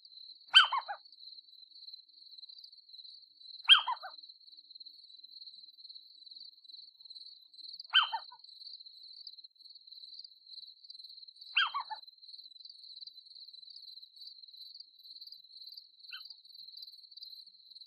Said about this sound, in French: le bruissement lancinant et métallique des régiments de sauterelles, de grillons, de locustes et autres courtières, disséminés par myriades sur les herbes de la prairie.